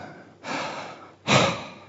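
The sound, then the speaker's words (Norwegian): Two breathy airflow sounds with no speech: a softer breath lasting nearly a second, then a louder, forceful exhale that fades out gradually, like someone deliberately blowing out air. “Pust. Så nært og hverdagslig.”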